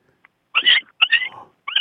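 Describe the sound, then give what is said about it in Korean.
A human voice imitates an injured puppy whimpering: a tiny yip, then three high, thin, wavering whines with breathy edges, rising and falling in short bursts with no other talk. “다, 다친 강아지 마지막 마지막으로 한 번 더 다친 강아지.”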